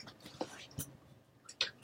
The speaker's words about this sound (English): Can you hear? There's a puppy chewing on something. Yeah, but it's not distracting.